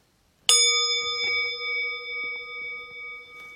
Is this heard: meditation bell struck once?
yes